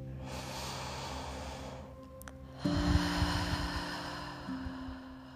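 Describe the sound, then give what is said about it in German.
Slow, deep breathing as a person gently breathes in and out through the mouth and nose during a relaxation exercise: a long airy breath, a brief pause, then another drawn-out breath, over a low, steady droning hum. “Gerne fünfmal in deinem Atemtempo, sodass dein Körper beginnt mit dem Atemzug und dem Geräusch des Atmens immer wieder zu in sich hineinzukommen.”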